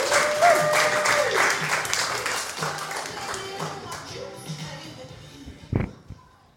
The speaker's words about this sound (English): This next act, I'm very excited to bring her on. We've been friends for many years, so let's bring that applause up